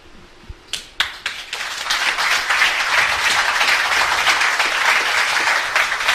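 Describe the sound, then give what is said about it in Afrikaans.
A few scattered claps quickly swell into full, steady applause from an audience after a reading, fairly loud, continuing without a pause until the end. “Ek dink sy verdien nog 'n hande klap.”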